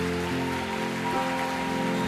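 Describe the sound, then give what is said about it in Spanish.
An audience applauds the Lord, a dense and steady wash of clapping that holds at an even loudness, with sustained musical tones humming underneath and no voices. “aplauso al Señor.”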